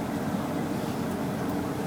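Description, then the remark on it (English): A steady low rumble of a boat engine running on the Bosporus in Istanbul, heading back to the little harbor at Ortaköy, constant and fairly loud throughout with a broad wash of noise and no voices. “Do you do this trip often? This boat trip?”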